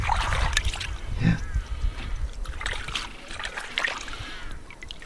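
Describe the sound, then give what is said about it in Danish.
Water sloshing and splashing, with trickles and small splatters repeating over a few seconds, as sand clams are swished and rinsed in shallow water. “Her var en sandmusling. Må jeg lige se en gang? Jeg skytter dem lige en gang.”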